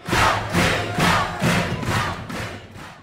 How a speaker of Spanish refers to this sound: Pronto todos los allí presentes, salvo el joven que permanecía de rodillas, estallaron en alaridos de alabanza.